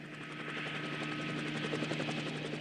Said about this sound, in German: An diesem Tag ist ein Hubschrauber im Einsatz, der im dauernden Pendelflug dreieckige Holzgestelle aus dem Tal an den Berghang fliegt.